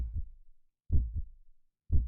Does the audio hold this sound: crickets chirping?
no